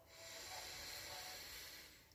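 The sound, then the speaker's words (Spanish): A single long, deep inhalation during a guided breathing exercise, a steady airy hiss that swells and fades over about two seconds, soft with no talking. “Tomaba una inhalación profunda.”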